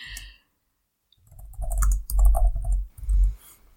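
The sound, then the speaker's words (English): Hard, rapid typing on a computer keyboard, fairly loud, with clustered clacking keystrokes in uneven bursts after a brief pause; no one speaks. “If if you hear clicking, listeners, that's me typing really hard.”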